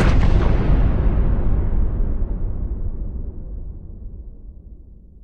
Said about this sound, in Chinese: 接着又是几声震耳欲聋的爆炸，有很多的炮弹落下来。这时候呢，查克啊消失在了爆炸扬起的一团泥土当中。